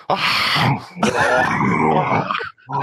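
Loud, close heavy breathing straight into a microphone, two long raspy breaths with a groaning, grunting edge, a brief pause, then another breath starting.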